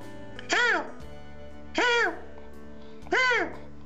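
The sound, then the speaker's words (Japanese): Three loud seagull calls, each a harsh, rising-then-falling cry, spaced evenly about a second and a half apart with quiet gaps between and no other sounds. “カモメね今度は。”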